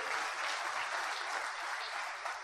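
Steady applause from an audience, a dense, continuous patter of many hands clapping at fairly even loudness throughout, with no voices standing out.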